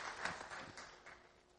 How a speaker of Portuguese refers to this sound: E eu peço à igreja agora que dê uma salva de palmas agradecendo ao pastor e aos irmãos.